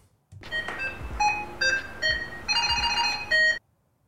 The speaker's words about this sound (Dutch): Ja, we hinten er al op dat je slim moest zijn om het geluid te ontdekken. Want we horen namelijk de nieuwe Samsung Smart Tag 2.